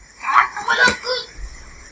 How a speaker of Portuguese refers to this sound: Gritou, é, foi, foi um grito de criança, cara.